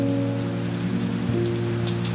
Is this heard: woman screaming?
no